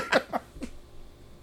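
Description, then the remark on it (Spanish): Three short, harsh bursts of heavy breathing blown right into the microphone in quick succession, loud, followed by near silence. No talking. “Está cabrón, estás ahí respirando en el micrófono bien duro.”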